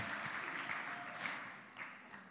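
A crowd applauding, with many hands clapping in a dense, steady crackle that holds at an even level for the whole stretch, with no voices over it. The applause is for a person being introduced before a talk on prayer.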